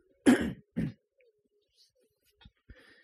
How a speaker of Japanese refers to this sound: ちょっと咳払いしてします。